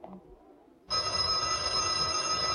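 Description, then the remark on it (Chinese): After a moment of near silence, a telephone in a gatehouse reception office bursts into loud, continuous ringing: a bright, metallic jangle that holds steady to the end with no voices. “他趁着传达室老同志接电话的空隙，偷偷的溜了进去。”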